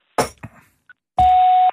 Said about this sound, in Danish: Det er … mobilsvar. Læg en besked øh, efter klartonen.